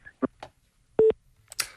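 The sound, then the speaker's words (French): A few short electronic telephone beeps from a dropped call on a faulty phone line sound in quick succession, one held steady tone standing out, followed by a brief rustling burst of noise at the end. “Ah oui, il y avait un problème avec le téléphone.”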